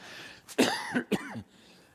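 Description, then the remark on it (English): A man speaking at church, who has been coughing for about 10 days, coughs two or three times in quick succession, harsh raspy bursts with a throaty voiced tail, fairly loud, then quiet. “if you're going to cough, cover the mic”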